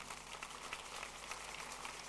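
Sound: audience clapping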